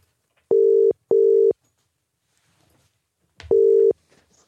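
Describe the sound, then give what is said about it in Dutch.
An outgoing phone call to Rob Hatch: its ringback tone purrs in a steady mid-pitched double burst, pauses in silence, then starts another ring. It sounds loud and clear, with no one talking. “Eh, dus belden we even met eh, Rob Hatch.”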